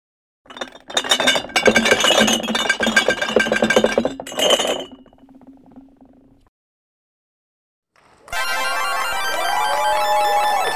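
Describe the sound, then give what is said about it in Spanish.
Glass bottles clink and rattle together in a loud, busy jumble for several seconds, then trail off; after a short silence a second sustained burst of bright, ringing glassy clatter follows. “Está clarísimo, son botellas de cristal.”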